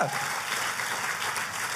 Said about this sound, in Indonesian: Boleh kasih tepuk tangannya paling meriah buat Tuhan kita.